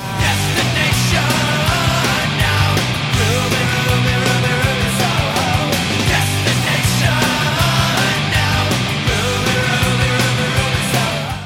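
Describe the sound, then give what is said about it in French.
A loud, fast punk rock song plays throughout, with dense distorted guitars, pounding drums and a vocal line riding on top, steady and unbroken from start to finish. “Et voici quelques-uns de leurs plus grands tubes.”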